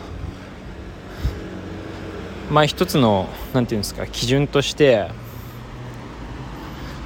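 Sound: passing car traffic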